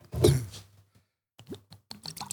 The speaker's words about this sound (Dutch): Oké, nou dan gaan we nu een glas water inschenken.